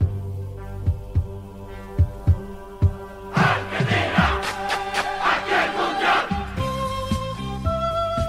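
The official theme music of the 1978 World Cup in Argentina, orchestral, opens with steady, heavy drum-like pulses under sustained low tones, then swells into a loud, dense passage before settling into held melodic notes.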